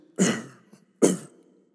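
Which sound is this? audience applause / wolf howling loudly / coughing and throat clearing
coughing and throat clearing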